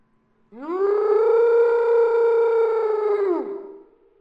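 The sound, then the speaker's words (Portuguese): A loud, sustained scream from the thorn man monster on a road, lasting about three seconds: a harsh, metallic, high buzzing tone that swells in, holds steady and then sags downward as it cuts off, with a brief echo trailing after. “Então, ele grita.”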